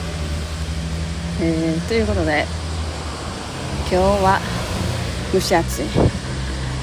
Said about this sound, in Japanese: 今日は いつもいつもですけど、あのー、道路のね騒音がすごいところを歩いてます。